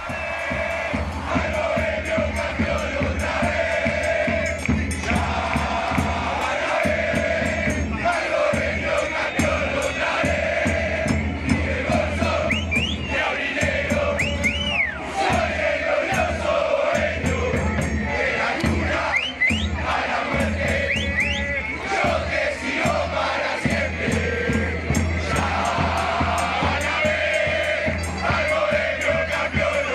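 A large crowd of Montevideo Wanderers football supporters chants the chant "Bolso Ni Aurinegro" together in unison, a loud, continuous sung chorus with a steady rhythmic pulse that holds for the whole stretch without letting up.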